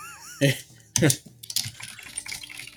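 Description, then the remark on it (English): Loud clacking of keys on a giant computer keyboard as notes are typed up: two heavy strikes, then a quicker run of lighter taps, with faint voices in the background. “keeps some notes typed up here on his giant yes. keyboard that he types them on.”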